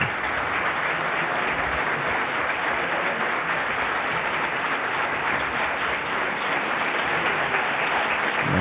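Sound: theatre audience applauding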